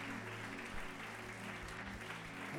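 An audience at a Christian service claps together for the Lord in steady, dense applause that fills the space for a few seconds, with a low sustained musical drone humming underneath.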